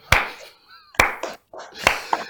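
Applause for a champion heard as a few slow, sharp hand claps, about three loud smacks spaced roughly a second apart, with softer voices and murmurs filling the gaps between them.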